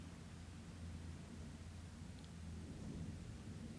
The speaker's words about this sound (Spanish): Tal vez la sensibilidad del micrófono capte los truenos.